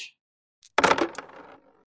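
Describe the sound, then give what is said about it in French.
Five dice tumble and clatter across a hard tabletop in a quick rattling burst that trails off into a few scattered clicks, with no voices; they are rolled for a charisma plus subterfuge check in a tabletop role-playing game. “Tu vas essayer de me faire un jet de charisme plus euh, subterfuge, ce qui lui fait 5 dés”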